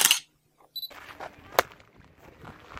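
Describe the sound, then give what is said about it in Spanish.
A sharp hand clap at the archaeological zone of the Pyramids of the Sun and Moon rings out, answered a moment later by a brief, high chirping echo like a duck's quack, produced by the site's built acoustics; a second crisp clap follows over faint outdoor background noise. “¿No escuchas un pato?”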